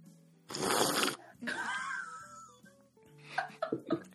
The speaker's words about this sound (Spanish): ¿Cómo se llama ese sonido? Sorbeteado